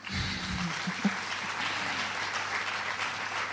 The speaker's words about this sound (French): Merci. On peut l'applaudir.